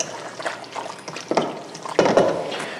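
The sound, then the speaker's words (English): Wet, squelchy stirring of pasta with grated fontina, Parmigiano and a splash of cream in a mixing bowl, with irregular sloppy bursts that swell louder near the end, and no talking. “And then we're gonna mix this up.”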